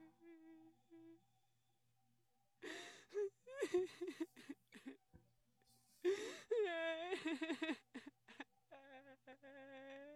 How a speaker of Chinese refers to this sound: 在他不知所措的时候，那种伤心的哭声又传了过来。